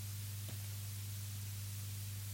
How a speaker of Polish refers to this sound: Dobrze jest najpierw nagrać chwilę szumu samego.